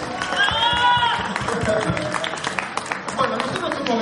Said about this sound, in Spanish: Por favor, aplauden el orgullo de Córdoba.